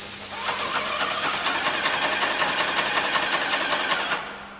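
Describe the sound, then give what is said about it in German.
A prototype painting robot in a Berlin parking garage sprays white paint evenly onto a wall with a roughly two-metre robotic arm and spray nozzle, moving up and down. A steady, loud spraying hiss sits over its compressor's low mechanical hum and faint rhythmic knocking, holding for about four seconds before cutting off abruptly. “Der Roboterarm fährt die Wand hoch und runter, sprüht die weiße Farbe gleichmäßig auf die Parkhauswand, rollt dann ein paar Zentimeter weiter.”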